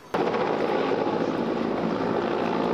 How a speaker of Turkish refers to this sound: Rüzgarın kuvvetlenmesi ve karadan müdahalenin imkansız hale gelmesi nedeniyle havadan müdahalede hız kazandı. Hem helikopterler hem de uçaklarla Otmanlar bölgesine müdahale ediliyor.